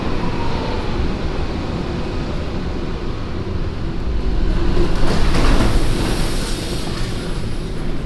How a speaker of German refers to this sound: Die herannahende U6 holt mich wieder zurück aus meiner Gedankenwelt, wie ein anschwellender Paukenwirbel, der das Finale ankündigt.